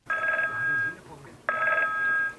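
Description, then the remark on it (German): A telephone rings twice in the busy call center of an emergency food supply company in Pirmasens, Germany, each ring a steady electronic trill lasting nearly a second, separated by a short pause, fairly loud with faint low background noise. “Und die lassen bei Convar die Kassen klingeln und die Telefone.”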